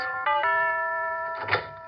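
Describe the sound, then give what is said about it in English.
A doorbell, pushed on Christmas Eve, rings out a short electronic chime melody playing a Christmas tune: a few bright ringing notes one after another with a sustained tone, with no voices. “Even it was wired for Christmas.”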